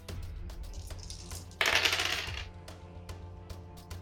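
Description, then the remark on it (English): Dice clatter and tumble across a hard tabletop for a covert roll in a tabletop role-playing game, a dense rattling burst in the middle surrounded by scattered sharp little clicks, fairly loud with no voices. “Roll covert.”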